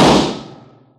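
gunshot

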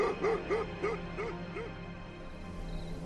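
fierce dogs barking

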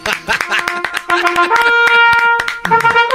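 one person clapping hands

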